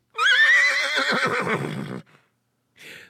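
A horse lets out a loud whinny lasting about two seconds, its pitch wavering and trailing off, followed by a brief breathy snort after a short pause.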